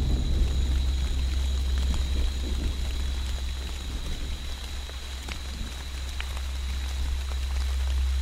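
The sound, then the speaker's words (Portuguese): Steady rain falls in a forest in Bocaina in March, drops hitting the tree canopies, in a dense, continuous patter over a low, constant rumble, with no voices. The downpour holds at a fairly even loudness throughout. “a chuva vai se transformando.”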